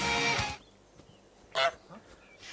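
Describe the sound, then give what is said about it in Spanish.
A goose honks loudly, a long harsh nasal call opening the moment, then a shorter honk after a pause, with a fainter one trailing at the end. “Eh, ¡Oh, el, ¡Oh, el, ganso! el, ganso, murió, ¿no?”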